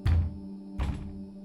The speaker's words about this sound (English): Recently, I was awakened shortly after falling asleep because I heard three loud bangs on the back door